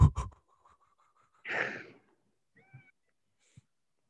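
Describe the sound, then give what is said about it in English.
A male cat named Dobby vocalizes: a breathy, hissing burst followed by a brief, faint, tonal meow, with a few soft clicks and thumps around it and no one talking. “Your cat is so handsome. Oh, now he seems pretty upset.”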